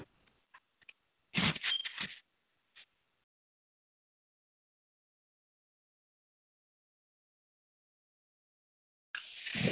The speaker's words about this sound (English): Sorry. Oh my gosh. that was me walking around with my phone and, and I hit the hit the button.